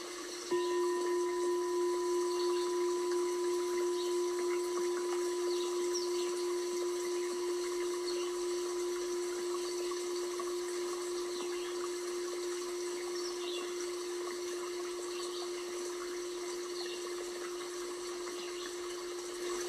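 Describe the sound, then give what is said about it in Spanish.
Steady, continuous rush of flowing river water, even and unbroken throughout, with a faint constant hum beneath it and no voices. “Le voy a entregar al río todo lo que me ocasiona estrés.”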